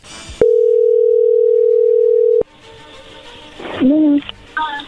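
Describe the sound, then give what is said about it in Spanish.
A telephone ringing tone sounds as a call is being dialed: one loud, steady, mid-pitched buzz lasting about two seconds, then it cuts off into faint line noise as a voice briefly answers. “no haga ruido, ahí se está marcando, vamos a ver qué sucede.”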